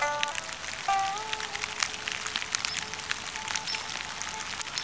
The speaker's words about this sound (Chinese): 到了清明节这一天，天气真的会比较不稳定，所以你看吧，下雨了。